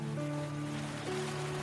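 Sea waves lap on a sandy beach as a sea breeze blows gently, in a steady, soft wash of surf noise, with faint sustained low tones humming underneath and no voices.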